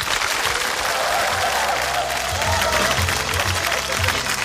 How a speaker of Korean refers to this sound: 여러분 박수를 청해 주시기 바랍니다.